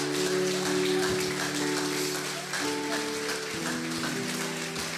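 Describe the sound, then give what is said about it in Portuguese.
An audience at a Christian worship service claps for Jesus Christ steadily as a dense, continuous wash for the whole five seconds, with sustained keyboard or organ chords holding underneath and shifting pitch partway through. “E eu peço uma salva de palmas para Ele.”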